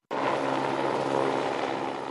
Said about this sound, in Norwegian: Helikopter deltok i går i sløkkearbeidet etter Ålgårdbrannen som starta søndag.